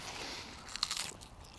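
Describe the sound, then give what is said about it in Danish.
A crisp bite into a fresh small sprout growing on a harvested pointed cabbage, a short burst of crunchy, crackling snaps lasting about half a second, fairly quiet, with no talking. “Oh, som faktisk også, nu skal jeg, nu skal jeg bide i den for dig.”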